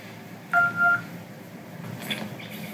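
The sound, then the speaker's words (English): Two quick telephone keypad tones beep in close succession, coming from a robot's voice as it answers a phone, clear and fairly loud, followed by a stretch of faint background hiss with no talking. “So he answers the phone, and the sounds come out of his robot voice.”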